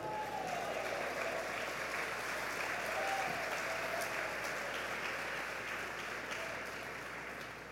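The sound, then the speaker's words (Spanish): An audience claps steadily during a sermon in a dense, sustained wash of applause that holds strong throughout and eases slightly toward the end, with no voices standing out. “Usted aplaude porque es de los que están ahí con él.”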